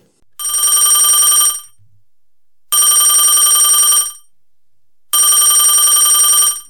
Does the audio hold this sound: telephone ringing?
yes